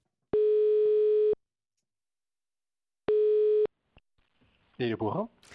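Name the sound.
telephone dialing tone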